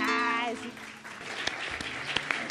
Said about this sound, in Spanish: Si pueden aplaudir, ¿eh? Si quieren.